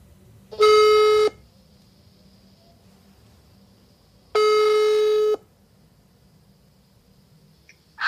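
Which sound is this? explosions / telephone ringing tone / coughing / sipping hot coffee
telephone ringing tone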